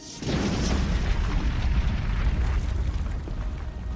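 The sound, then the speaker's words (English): A loud explosion, heard far behind while nearing the exit of a long tunnel, bursts in and gives way to a sustained, heavy low roar that rumbles on steadily for several seconds, with no voices present. “As they near the exit, they hear a terrific explosion.”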